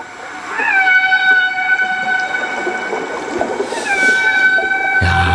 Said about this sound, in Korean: 이 소리를 오늘 일부에 나가는 노래에 저희가 꽁꽁 숨겨놓겠습니다. 어떤 노래에 숨어 있는지 여러분들 보물찾기 하세요. 노래를 귀 기울여서 들으시다 보면 쉽게 이 돌고래 소리 찾을 수 있을 겁니다.